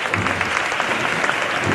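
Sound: street crowd applause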